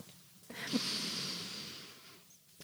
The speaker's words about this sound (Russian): И чтобы почувствовать эту жизнь, почувствовать свое тело, я хочу предложить вам остановиться, сделать вдох на 6 счетов